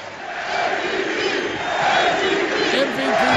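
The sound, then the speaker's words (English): A large crowd chants loudly and steadily, many voices blending into a dense, rhythmic roar that fills the space without pause. “Listen to this crowd.”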